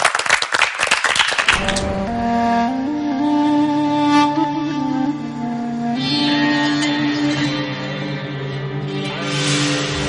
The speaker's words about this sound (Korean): 박수로 본격적인 강연 청해 듣도록 하죠.